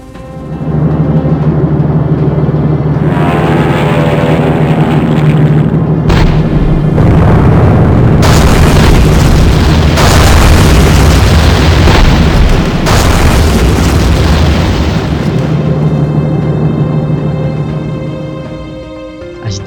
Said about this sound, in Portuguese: 16 horas e 15 minutos, o bombardeio cessou.